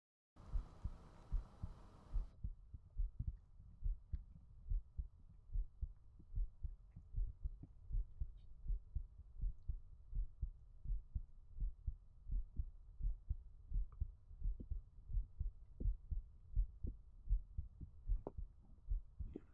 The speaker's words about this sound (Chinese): 啊，脸对着我的胸膛吗？好的，抱紧一点。怎么样，亲爱的？听见我的心跳了吗？